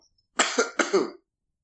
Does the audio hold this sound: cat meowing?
no